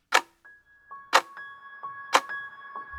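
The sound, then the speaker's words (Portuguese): A clock ticks loudly and steadily, one sharp metallic tick each second with a brief ringing resonance after each stroke, heard alone without any voices. It is the ticking clock of the Centro Sabiá campaign, a clock of violence against women in Brazil. “O tempo está passando e o cronômetro da violência contra as mulheres continua a contar.”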